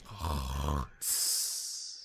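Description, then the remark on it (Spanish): A voice mimics a loud snore: a rough, rattling inhale, a brief pause, then a long, airy whistling exhale that slowly fades. “Yo, loco, yo ronco, yo ronco con turbo y de todo.”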